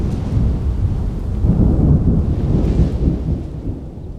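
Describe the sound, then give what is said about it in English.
A thunderstorm heard from inside tents far from any building, with heavy rain pouring steadily, wind, and deep thunder rumbling throughout, loud, with no voices. “We were far away from any building, civilization, or help heavy rain, wind, thunder, and lightning were super loud inside the tents.”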